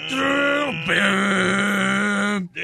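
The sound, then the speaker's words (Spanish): A voice imitates a passing boat's horn with a long, loud, droning hum that dips briefly then holds steady for about two seconds before a short break and restart. “Pero que escuche el barco.”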